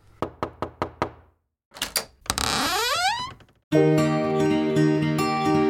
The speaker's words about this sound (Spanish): Tocamos su puerta en este momento para contarle algo.